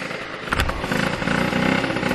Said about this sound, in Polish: Tam teraz posłuchajcie jak zapala pięknie Aprilia. Aha, muszę ją włączyć, tak. No i zapala. Proszę. Aprilia jest piękna. O, chcę jechać. Mruczy.